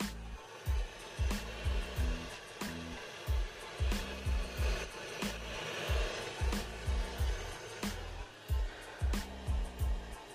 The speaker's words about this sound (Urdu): او بارش ہو رہی ہے ایک minute let me move closer to the window